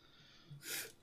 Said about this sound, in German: Ah, ich schnief die ganze Zeit, ist ja schlimm. Die armen Zuhörer.